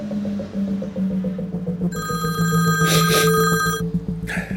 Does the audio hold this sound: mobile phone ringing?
yes